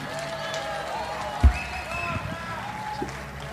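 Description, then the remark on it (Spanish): A live audience at a band's concert keeps up a steady, overlapping shout of "otra" calling for an encore, voices blending into a continuous crowd roar with a single sharp thump partway through. “Estoy escuchando que dicen otra.”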